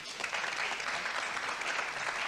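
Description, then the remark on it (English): An audience watching speakers on stage applauds steadily, a dense, continuous patter of many hands clapping at once, sustained and even throughout with no voices standing out. “And that's the first time that the audience clapped.”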